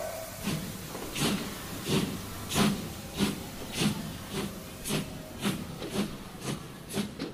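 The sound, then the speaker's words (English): The Walt Disney World Railroad steam train at the Magic Kingdom chuffs and hisses as it pulls away, with steady rhythmic bursts of steam roughly twice a second over a low mechanical rumble, and no voices. “The Walt Disney World Railroad now boarding for a scenic trip around the Magic Kingdom.”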